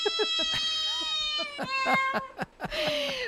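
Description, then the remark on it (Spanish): A cat named Pompón meows repeatedly, a string of short, insistent mews with rising and falling pitch, with no talking over them. “¿con qué gatito...? Ay, oh, ese es Pompón. Oh. Ven, ven”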